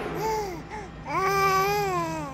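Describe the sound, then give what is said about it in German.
A baby babbles in two short bursts of high, sing-song vocalizing with a brief pause between, fairly loud over a faint steady hum. “Und was hat das mit diesem Baby auf sich, das du da mitgebracht hast?”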